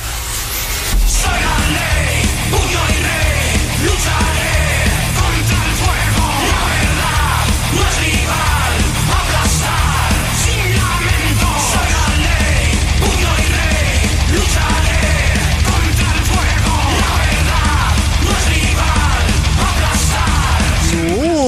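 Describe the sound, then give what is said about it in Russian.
A loud, dense 2016 Spanish rock song by a band from Castellón de la Plana, Valencia, plays throughout, with harsh shouted vocals over driving heavy guitars and drums, sustained at full volume with no pauses. “Вот такие вот крикливые э, испанские горячие парни.”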